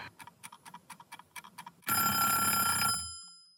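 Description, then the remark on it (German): An alarm clock ticks in a quick series of short, even clicks, then bursts into a loud, shrill, continuous bell ring for about a second before the ringing fades out. “Und dann hat sie sich den Wecker gerichtet”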